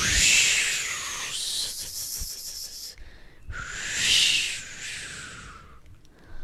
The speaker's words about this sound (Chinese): 平安国啊就会开始刮起阵阵的风。初期的几天，那个风非常的轻柔，通常啊都只是呼，然后风就会越变越强，在吹过草原的时候，还会有那种呼。